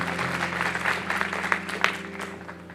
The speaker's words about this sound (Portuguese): Ele vai te abençoar no nome de Jesus. Aplauda ele. Vamos ficar em pé.